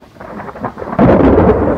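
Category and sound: nature, thunderstorm with heavy rain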